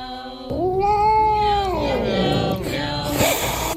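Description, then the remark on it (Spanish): A cat lets out one long, drawn-out meow, rising and then sliding down into a strained, yowling wail, followed by a brief scuffle of noise. “Este es el gato.”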